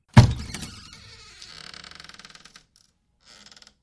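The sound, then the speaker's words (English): A door is gently opened by the Rebbe: a sharp clunk of the latch, then a slow, stuttering creak of the hinge that trails off, with a brief final squeak. Fairly clear, with no voices. “So Vlad, the Rebbe, he gently opens the door”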